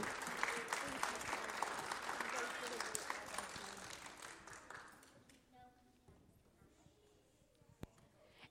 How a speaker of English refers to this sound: So please give them a round of applause for everything they do for our concession stand.